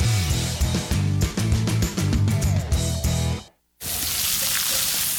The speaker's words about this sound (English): Hear that? That's the plumpest, juiciest hot dogs you've ever seen getting their grill on.